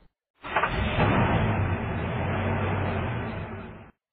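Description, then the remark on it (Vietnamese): A car engine rumbles steadily for a few seconds as the car drives away, a broad, fairly loud roar with a low hum underneath, starting abruptly and cutting off at the end, with no one speaking. “Xe hơi chạy đi, Như Thạch leo lên xe máy đạp mà về nhà.”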